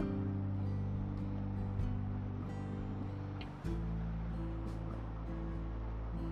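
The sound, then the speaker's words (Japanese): A steady motorcycle engine drones with strong low harmonics, its pitch shifting as the rider changes speed, while wind rushes over everything in a constant roar; recorded while riding the motorcycle on the road at about 40 km/h. “バイクに乗りながらはじめて収録してみました。エンジン音など入っています。”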